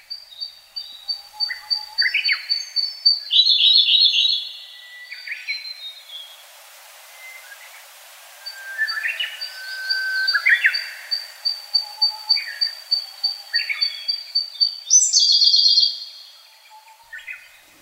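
Siberian blue robin song: thin, high introductory notes leading into quick, bright trills, repeated in several phrases with short pauses. Clear, with no voices.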